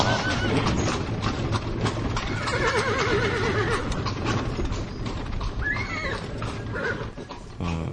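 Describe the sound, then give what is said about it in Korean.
Several purchased cart sound effects layered together, from ox-drawn and horse-drawn carts: a dense, steady rumble and clatter of wheels and hooves, with animal calls such as a horse's whinny rising over it. No one speaks. “수레소리 이펙트 돈 주고 샀어요.”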